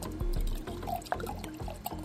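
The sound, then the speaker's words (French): Rudy Kurniawan's blended wine is poured steadily through a small funnel into the empty bottle of a genuine grand cru, a continuous splashing stream with small gurgling bubbles breaking through, lasting about two seconds with no voices. “Une fois qu'il est satisfait de son breuvage, Rudy Kurniawan prend un petit entonnoir, et verse le tout dans la bouteille vide d'un vrai grand cru.”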